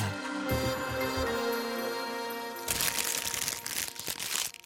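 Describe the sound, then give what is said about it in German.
A plastic bag is crinkled and crushed, a dense crackling rustle lasting about two seconds, following a brief stretch of sustained tonal sound. “So lang dauert es ungefähr, bis so eine Plastiktüte hier im Meer zersetzt wird.”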